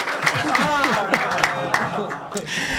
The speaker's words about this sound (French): Ma sœur est enceinte. Ah, oui. Voilà, je voudrais, euh, s'il vous plaît, que vous puissiez applaudir ça. Bravo.